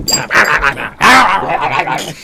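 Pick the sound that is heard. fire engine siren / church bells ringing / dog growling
dog growling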